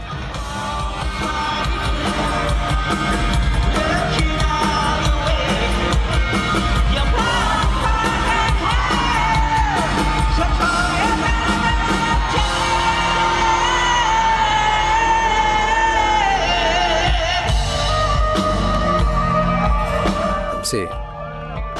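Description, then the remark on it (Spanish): A loud live concert in Singapore in 2019, recorded on a cell phone: a singer's voice soars and bends over a dense, distorted band wash, with crowd noise mixed in, steady and overpowering for the whole stretch. “Es un audio registrado por un celular, por eso se escucha así.”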